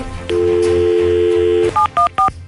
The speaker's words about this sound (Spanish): Vamos a marcar, Rosita, eh, no hables, voy a marcarle a tu marido